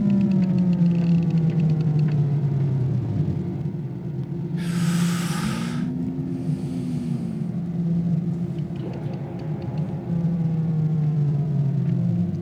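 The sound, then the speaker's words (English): A Star Wars sci-fi tractor beam being turned off by Obi-Wan, from the Sounds of Star Wars book: a loud, continuous low mechanical drone with a warbling, wavering pitch, broken midway by two short bursts of airy hiss, with no voices. “The uh, tractor beam being being turned off by uh, Obi Wan, but it's pretty.”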